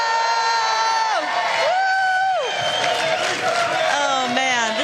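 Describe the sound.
A crowd cheers loudly and continuously, with rising and falling whoops and shouts riding over a steady roar of voices for about five seconds.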